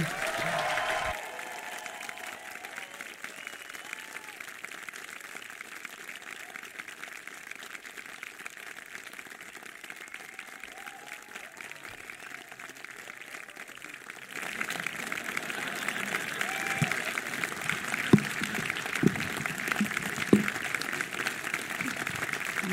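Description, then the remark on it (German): An audience in a cinema applauds, a dense, continuous patter of many hands clapping that holds steady and then swells louder and fuller about two-thirds of the way through. “Und nun einen kräftigen Applaus für unsere drei Moderatoren Daniel Schröckert, Etienne Gardet und Andreas Bardet.”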